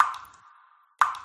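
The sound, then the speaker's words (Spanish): A leaking shower drips: two distinct water drops land about a second apart, each a resonant plink with a short ringing tail, with no voices or other sounds. “Una ducha perdiendo agua suena así.”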